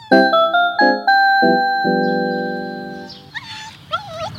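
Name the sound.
dog barking and whimpering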